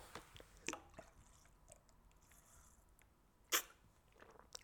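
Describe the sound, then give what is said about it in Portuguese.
Someone takes a quiet sip of water, with soft wet mouth and swallowing sounds, a few small clicks, and two sharper bursts like a bottle or glass being handled. No one speaks. “Primeiro bebi um pouco de água, mas agora vou respirar fundo.”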